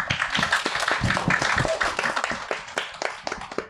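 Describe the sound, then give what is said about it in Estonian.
An audience at a panel discussion event applauds steadily, many hands clapping in a dense, continuous patter that stays fairly loud throughout before thinning slightly toward the end. “nüüd vist tuleks küll, me ise mikritega aplausi teha ei saa, aga suur aitäh publikule, et te niivõrd vägevalt kaasa tegite”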